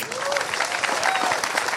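Steady, dense applause from an audience, a continuous wash of clapping hands at an even loudness with a few brief whistle-like tones rising over it.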